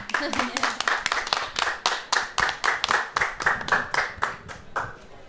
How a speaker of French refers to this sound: Euh, je pense qu'on peut vous applaudir quand même pour le projet que vous menez.